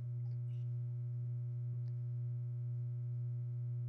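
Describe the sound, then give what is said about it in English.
A steady, low sustained delta binaural beat tone hums continuously throughout, smooth and unbroken, with faint higher harmonics and a few tiny clicks; no one speaks. “Let's take it down to the to the last level, the lowest level of delta.”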